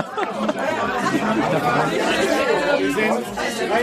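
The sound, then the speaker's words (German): A dense wash of many overlapping voices chattering at once at a packed listener meetup, steady and loud throughout, with no single voice standing out. “Ich bin gerade auf deinem Hörertreffen und es ist gerammelt voll. Es sind ganz viele Menschen hier”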